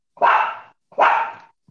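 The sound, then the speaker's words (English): A female puppy barks twice in quick succession, each bark loud and slightly drawn out, with a brief pause between them and no talking over them. “I'm so sorry about my puppy. she is barking in the background and making me lose my train of thought.”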